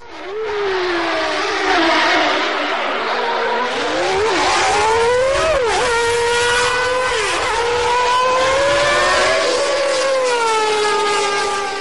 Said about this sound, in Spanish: Pero que, vamos a ver, Juan, si es que ya no suenan así los Fórmula 1. Se van pareciendo, se van pareciendo.